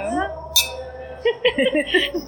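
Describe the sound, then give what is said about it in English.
A single sharp clink of tin mugs knocking together in a toast, bright, landing amid people talking with voices before and after it. “See, that was tin. Did you hear that?”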